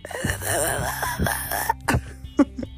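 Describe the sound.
A voice acts out choking on pills: a strained, wavering moan followed by several short, sharp coughs and gasps, fairly loud, with no words spoken.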